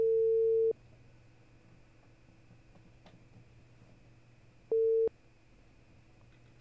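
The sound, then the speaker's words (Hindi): A steady telephone tone beeps twice while a dropped call is being redialed, a long tone at the start and another about four seconds later, with a faint hum and low background noise in between. No one speaks. “किसी वजह से लाइन कट गई है लेकिन अभी भी हम उनको फिर वापस से मिलाते हैं और उनसे बातचीत का सिलसिला जारी रखते हैं”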